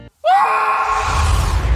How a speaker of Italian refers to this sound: Ah, ok, praticamente questo è un sito dove ci fa sfogare. Se mm, vivete in un contesto sociale e non potete urlare come dei pazzi, questo sito urlerà per voi.